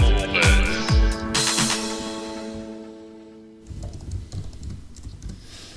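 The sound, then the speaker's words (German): A short tonal musical sting rings out and fades, then a dense run of rapid clicking keystrokes follows, like someone typing fast on a computer keyboard. “seine Tastatur zerstört mit seinen äh, ne. feilschnellen Fingern.”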